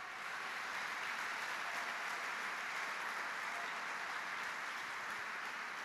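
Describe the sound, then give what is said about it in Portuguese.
An audience applauds the Lord together, a dense, steady wash of many hands clapping at once that holds an even level for several seconds without any speech over it. “E os curados aplaudam ao Senhor.”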